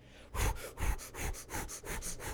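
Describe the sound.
A person imitates rapid, heavy breathing: about eight quick, harsh huffs in a steady panting rhythm, loud and breathy, with no talking.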